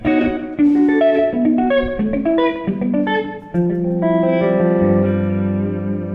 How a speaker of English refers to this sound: This is the basic clean tone. Yeah. There's a little slap delay on there.